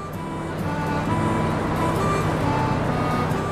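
The engine of a 1959 Leyland double-decker bus with an open platform at the back rumbles steadily at idle, with a constant low droning hum and no break in its loudness. The bus is being taken from Manchester to Spiddal for a wedding.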